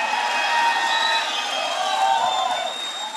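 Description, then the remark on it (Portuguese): An audience at a morning church service, answering the preacher's call to give the loudest shout they can, shouts loudly together, a dense, sustained roar of many voices with high cheering cries and whoops layered on top, holding steady for about three seconds. “Se você acredita nisso, enche o seu peito e dê o maior grito que você puder dar essa, no, essa manhã.”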